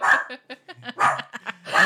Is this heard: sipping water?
no